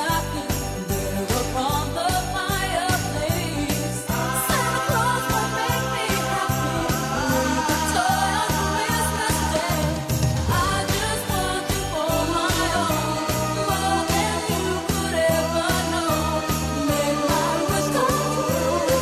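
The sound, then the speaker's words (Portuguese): A Christmas song plays throughout, a full band with a steady bouncy beat and bright jingling accents, loud, with no one talking over it. “Essa música quer dizer Feliz Natal em inglês.”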